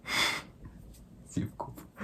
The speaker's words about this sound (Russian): Так почему же ты сейчас зеваешь тогда? Одну секунду. Я одну секунду зевну